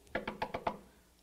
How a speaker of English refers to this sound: I'm I'm home, home alone, and Someone knocks on the door.